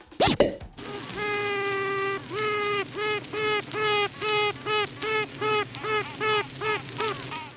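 Honeybees honking inside a hive: a buzzy, nasal tone that starts as a long steady honk, then breaks into a quickening series of short honks, fairly loud, with a soft click at the start.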